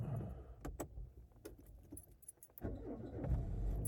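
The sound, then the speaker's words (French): Keys jingle and clink in a series of sharp, bright rattles over a low rumble, then a car engine turns over easily and settles into a steady, louder idle, as the driver sets off on a roughly 20-minute home-to-work drive on a rainy 1 November. “Oh waouh C'était un, beau lancement ça, dis donc. C'est rare que ça, ça se lance aussi facilement.”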